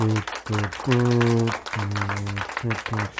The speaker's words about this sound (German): Applaus. Ja, weil man dafür applaudieren sollte. Ja. Wow, Chemnitz, du hast es wirklich Golfclap. Glückwunsch. Golfclap.